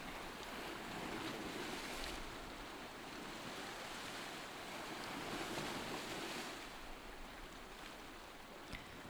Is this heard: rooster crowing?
no